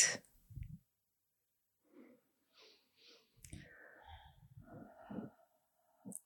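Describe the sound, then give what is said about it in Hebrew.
Several deep breaths drawn in through the nose during a short guided breathing exercise, snuffly, spaced out over a few seconds with brief rustling and faint vocal noises between them. “אז בואו ניקח כמה נשימות עמוקות.”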